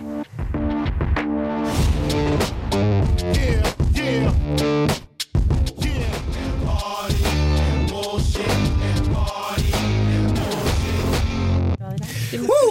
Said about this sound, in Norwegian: Så det du skal få høre nå, er da det selveste, ja, som nevnt, … med låta '…'